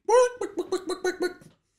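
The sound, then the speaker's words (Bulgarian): A person's voice imitates a chicken clucking: one drawn-out squawk followed by about six quick, rhythmic clucks, moderately loud, with no other sounds around it. The chicken is on a beach near the shore, covered in green liquid. “Виждаш една кокошка, която е абсолютно умърсена от тази зелена а, течност.”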